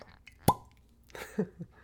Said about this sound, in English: And Drambuie has a proper stopper, so let's give it a pop.